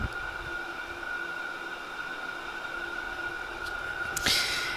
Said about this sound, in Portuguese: E eu tô no meu quarto, no qual tem um ventilador muito alto.